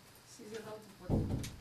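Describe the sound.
A door shuts with a single low thud and a brief rattle, just after some faint, indistinct voice murmuring.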